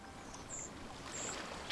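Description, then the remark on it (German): A boat moving across water, its steady wash and hiss of churning water filling the brief stretch, with a few faint high chirps above and no voices. “Schifffahrt, vom kleinen Boot bis zum riesen Containerschiff.”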